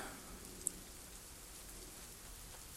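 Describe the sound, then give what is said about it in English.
Steady rain falls in an even, hissing wash with no voices, fairly soft and constant, broken once by a single sharp drip or tick near the start. “I'm not a fan of the rain.”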